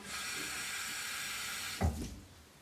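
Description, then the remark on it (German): Tap water runs steadily into a bathroom sink with a bright, hissing rush, then a brief splashy clunk near the end as the stream is disturbed or the tap shifts. “Ach stimmt, da ist ja Wasser dran.”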